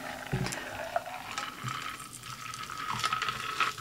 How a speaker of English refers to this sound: Um, I'm gonna strain it off with my little strainer. Pour it in. Lovely.